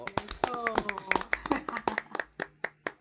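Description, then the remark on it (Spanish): Hands clapping in a quick, steady rhythm of sharp claps, a dozen or more over a few seconds, welcoming a producer, composer and musician, with voices cheering faintly underneath at first before the claps thin out and fade. “Lo que un aplauso, señores. y un aplauso.”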